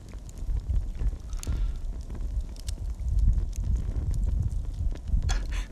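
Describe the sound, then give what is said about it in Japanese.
A crackling campfire with the microphone brought close to the flames: a steady low rumble of burning with scattered sharp pops and snaps at irregular intervals, fairly loud, with no one talking. “まあこの焚き火の音でも聞きながらね火がつきそうでなぐらい近づいてますけども聞こえてるかな、うん、”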